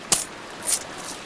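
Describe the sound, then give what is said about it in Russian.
A copper Roman coin falls out of a captain's pouch of coins and strikes a hard surface with two bright metallic clinks about half a second apart, followed by a fainter tinkle as it settles and rolls. The sound is clear, with no talking. “Капитан вытащил мешочек с монетами, и одна монета выпала. К нам подкатилась.”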